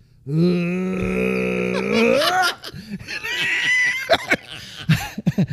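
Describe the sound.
A voice lets out a long, strained, harmonic retching groan lasting about two seconds, mimicking dry heaving, followed by breathy laughter and scattered vocal noises.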